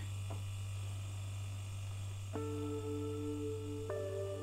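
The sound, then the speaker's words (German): A refrigerator hums steadily, a low constant drone that fills the whole stretch, with a faint click and a slight shift in tone twice near the end. Nobody speaks. “Der Kühlschrank summt gleichmäßig.”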